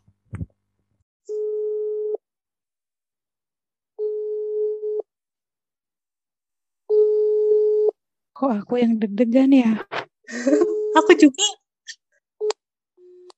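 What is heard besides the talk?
telephone ringback tone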